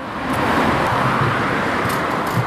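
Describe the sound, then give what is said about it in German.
Steady, dense roar of road traffic on the busy Leipziger Straße in Dresden, Germany, cars passing continuously with a broad rumbling wash and no voices. “wir haben uns in der Dienststelle in Dresden verabredet, nahe der stark befahrenen Leipziger Straße.”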